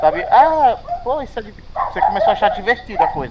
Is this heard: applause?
no